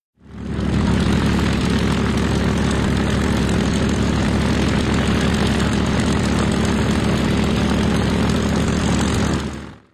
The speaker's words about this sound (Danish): Vi hører lyden her fra et ikonisk tysk jægerfly, BF Messerschmitt 109, som jo var det fly, blandt andet man sendte afsted på jagt efter de allierede bombefly. Messerschmitt er svær at flyve.